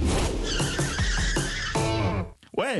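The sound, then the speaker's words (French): Loud cartoon-style car sound effect from a TV programme's opening credits: a rapid, sputtering rush of revving and tire skidding, briefly cutting out before ending in a wavering, squealing whine. “des bruits ah de cartoon de voiture qui dérapent, une musique funky et une typo rigolote.”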